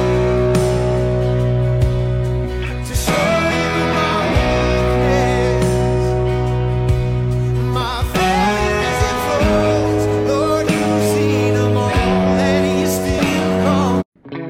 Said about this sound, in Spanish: me gusta un montón y me siento muy contento cada vez que escucho que inicia el podcast con esta canción, o bueno, con este instrumental que hizo